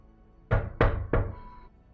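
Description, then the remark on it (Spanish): Three firm, fairly loud knocks on a door in steady succession, each with a short resonant decay, followed by a faint lingering ring. “comienza el desempaque, comienza el día, pasó el desayuno y de repente escuchan golpes en la puerta.”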